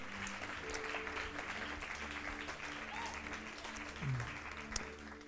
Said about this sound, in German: Hey, komm, lass uns Jesus nochmal einen Applaus geben.